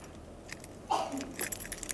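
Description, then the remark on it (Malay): Keys jangle in a couple of short metallic bursts, a clink near the middle and then a looser rattle, over a quiet hum with no one speaking. “Tapi bukankah setiap kunci itu ada gerigi-geriginya yang jika engkau bawa lengkap bersesuaian dengan pintu yang tak dibuka, dia akan terbuka.”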